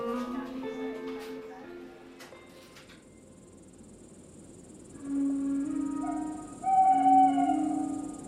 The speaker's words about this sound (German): Hunkeler erwachte mitten in der Nacht, weil eine Eule rief.